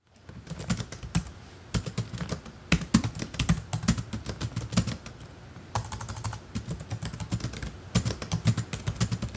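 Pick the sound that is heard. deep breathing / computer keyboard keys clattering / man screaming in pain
computer keyboard keys clattering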